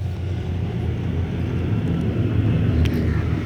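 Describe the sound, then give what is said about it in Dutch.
Tractors driving past in the countryside, a steady low engine rumble that fills the whole stretch at an even loudness, with a brief higher-pitched rattle near the end and no talking. “Prachtige, prachtige tractoren die hier rijden.”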